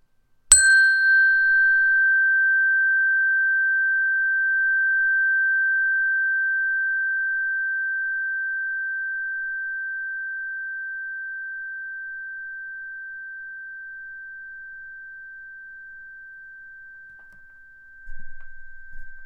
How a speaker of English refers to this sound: one last time, I want you to listen to the sound from the beginning all the way to the end and see if you can hold on to it, continuing to breathe in and breathe out, letting the sound of the bell enter your ear, into your body, and flow through you.